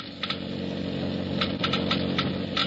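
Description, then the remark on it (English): Sparse, irregular clicks of laboratory Geiger counters tick slowly, a handful over a few seconds, on top of a steady low mechanical hum, as they measure the low wear rate of engine parts lubricated with new RPM motor oil. “Listen now as the Geiger counters click off the difference.”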